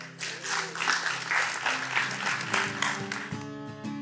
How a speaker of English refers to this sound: Amen. Can you give Jesus a hand clap?